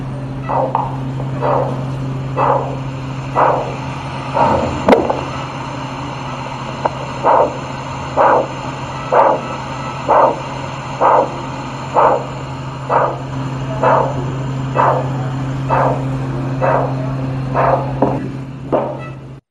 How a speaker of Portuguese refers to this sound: Aqui na sequência eu vou colocar um vídeo para vocês, um procedimento microcirúrgico com uso do Doppler intraoperatório, para vocês conseguirem escutar a artéria testicular pulsando.